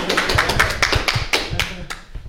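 A small audience claps for a couple of seconds, a dense patter of overlapping hand claps at steady loudness, with no voices over it.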